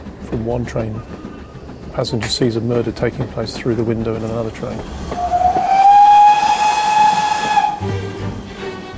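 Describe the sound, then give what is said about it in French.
A steam train whistle gives one long, loud, steady blast over a hiss of steam, following a stretch of people talking; voices return briefly as the whistle fades. “Il y a également le train de 16h50, dans lequel un passager regarde par sa fenêtre et voit dans un autre train une femme se faire étrangler.”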